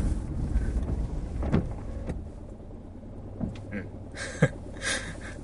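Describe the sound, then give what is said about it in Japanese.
Steady low engine rumble inside a moving automatic car as the driver presses the accelerator after another car cuts in, with road noise filling the background and a few brief clicks and bumps; no one speaks. “ちょっと今、えー、ちょっと割り込み気味にいたのでアクセル踏み込みましたが”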